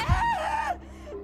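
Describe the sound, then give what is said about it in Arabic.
A woman screams in terror in a hallway, one high, wavering, sustained cry lasting under a second before it breaks off, leaving a faint low rumble. No talking. “الصوت اللي سمعته في الطرقة كان صوت ست ست بتصرخ في رعب”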